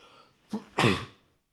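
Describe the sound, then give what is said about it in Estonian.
A single sneeze: a short sharp intake followed by a loud, explosive burst that quickly fades, with no talking around it. “terviseks.”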